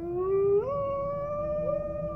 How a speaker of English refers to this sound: and you hear a big two howls in unison, and then you hear the pitter patter of large padded feet running in the guys' direction.